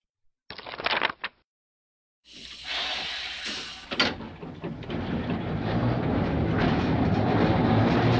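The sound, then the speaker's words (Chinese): A train pulls away from a station platform on its rails: after a few short clunks and a pause, a broad rumbling hiss rises, a sharp clank cuts in, and the steady roar builds louder toward the end. “火车开了，看到车窗里的爸爸了。”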